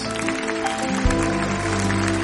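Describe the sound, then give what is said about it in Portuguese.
An audience at a church service claps steadily and loudly for a couple of seconds to welcome new members of the faith, a dense, continuous patter of hands over sustained music playing underneath. “Uma salva de palmas para esses irmãos.”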